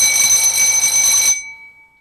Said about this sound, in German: Oh, soll ich? wir haben nicht mal eine Klingel bei uns an der Schule. Na, na die können wir ja einblenden.